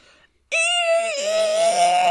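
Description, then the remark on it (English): A person lets out a loud, sustained, high-pitched screech, imitating a monster's roar. It bursts in abruptly after a brief near-silence and holds strong, with a slight dip in pitch partway through. “that was, that was, that was that was just a screech.”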